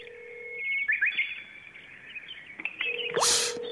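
A mobile carrier's default phone ringback tone plays alone while a call connects: a steady low beep that stops and returns, while recorded birdsong chirps and trills over it, with a brief burst of hiss near the end.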